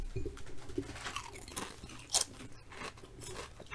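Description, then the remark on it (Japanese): Crisp, irregular crunching of standard salt-flavored potato chips, a kind of Taiwanese origin, being chewed, a run of dry crackly bites with a sharper, louder crunch near the middle, with no talking. “じゃあいただきますはい食べましょ”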